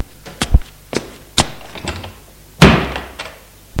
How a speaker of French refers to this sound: Il ouvre la porte.